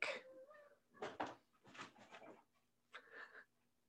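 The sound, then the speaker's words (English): A cat meows several times in short, separate calls with brief pauses between them, fairly quiet, with no talking over it. “your cat must really think that John O'Hurley is the way to go”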